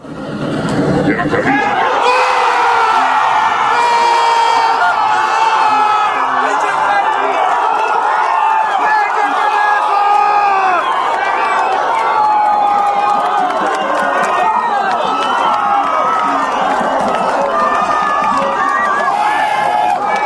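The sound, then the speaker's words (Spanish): Mexican football fans in Mexico City erupt in a loud, sustained roar after forward Henry Martin pushes a Mexico corner kick into the goal, a dense wall of shouting and whooping voices that bursts in within the first seconds and stays at full volume. “La voz del perro Bermúdez es sepultada totalmente por el escándalo.”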